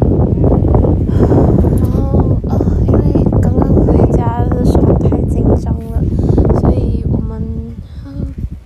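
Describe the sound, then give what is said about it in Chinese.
Strong, steady wind rushes and roars through the whole stretch as a thunderstorm approaches and rain clouds drift in, recorded on a phone left at a new home, with people talking intermittently over the gusty noise. “手机留在了新家，想要继续录这个风声。”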